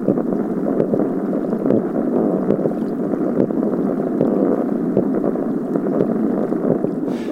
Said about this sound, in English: He showed me what you can hear when a large group of spotted sea trout are spawning.